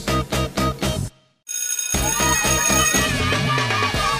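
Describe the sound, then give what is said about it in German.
A mobile phone ringtone plays loudly: a quick run of four rhythmic electronic pulses, a short pause, then a bright, busy melodic jingle that keeps going. No one speaks. “Irgendjemand von den Schülern hat immer das Handy nicht ausgeschaltet,”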